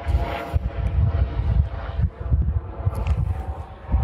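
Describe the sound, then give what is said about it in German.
A helicopter on an operation flies overhead, its low, throbbing rotor rumble steady and fairly loud, mixed with a rushing, wind-like roar and no talking. “Aber ah, ihr hört gerade richtig real life heute, so mit Hubschrauber-Einsatz hier sogar noch über mir.”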